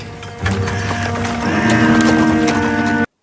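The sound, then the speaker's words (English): Horse hooves clip-clop in a steady rhythm as a hansom cab rolls along, with creaking, rattling wheel and harness sounds layered underneath for about three seconds. “They're in an old hansom cab, aren't they?”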